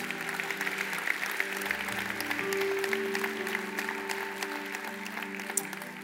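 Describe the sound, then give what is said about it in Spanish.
A church audience claps steadily for several seconds, giving applause to the Lord, a dense, even wash of many hands, with sustained keyboard or organ chords playing underneath. “Dan un fuerte aplauso al Señor por sus vidas.”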